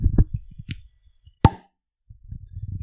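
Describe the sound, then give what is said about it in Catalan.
A single sharp, loud cork pop as a beer bottle is opened, set between low muffled rumbling and handling noise before and after. “Molt bé, tap de suro sí, tap de suro no.”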